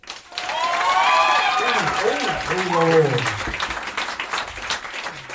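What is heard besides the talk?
audience applause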